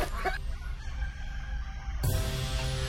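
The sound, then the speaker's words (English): Hundreds of chickens cluck and crow over a steady, noisy barnyard din around a wooden outhouse, with a short burst of calls at the start and a louder, drawn-out crow near the end. “Devin and Devin kicked the door open and ran, narrowly escaping the hundreds of bloodthirsty chickens.”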